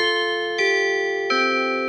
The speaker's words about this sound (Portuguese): Vamos para o toque do Cuco.